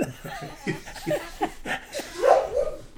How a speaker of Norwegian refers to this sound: Da er jo bjeffer bikkja, gitt.